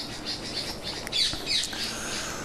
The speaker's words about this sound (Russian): А, извините, у меня тут попугаи выясняют отношения. Я их сейчас вижу. Что-то они тут, короче, еду делят.